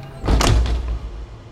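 A heavy bank door in Halden is pushed open, a thudding bump followed by a low rumbling slide and a softer settling knock, with no voices.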